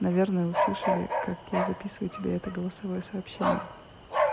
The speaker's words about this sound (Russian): Ой, Тебе, наверное, слышно, как лают соседские собаки.